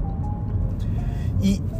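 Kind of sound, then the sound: vehicle, car interior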